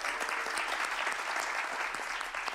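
A steady burst of audience applause for one of two teams in a quiz challenge, dense overlapping claps forming a bright, sustained wash of sound at even loudness throughout, with no voices standing out.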